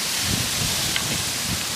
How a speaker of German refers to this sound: Es ist extrem windig. Ich hoffe, der Puschel auf meiner Kamera ähm, schafft das.